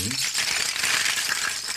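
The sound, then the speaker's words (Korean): A rattling percussion instrument made of young oyster shells, shaken in a dense, bright, continuous clatter that holds steady for about two seconds, with a brief voice fragment at the very start. “껍데기 들고 오시고 네 전복이랑 전복 어린 굴 어리굴이죠 어리굴 껍데기 진짜 있는 악기예요?”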